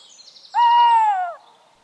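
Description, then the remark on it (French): A tawny owl gives a single long, clear hoot lasting under a second, steady then gently falling at the end, over a quiet background with a faint high hiss. “Seule la ulotte présente dans les bois parisiens, en fait volontiers son repas.”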